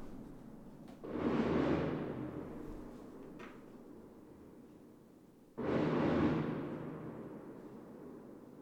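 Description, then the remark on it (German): Two heavy fireworks booms outside, a few seconds apart, each a sudden broad blast that rumbles and fades slowly, over a low steady background murmur with no talking. “Ist ein Feuerwerk.”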